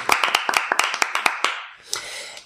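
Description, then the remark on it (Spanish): A short burst of clapping: a handful of people applauding with quick, sharp, uneven claps for about a second and a half, then trailing off into a few scattered claps. “Un aplauso a nosotros mismos.”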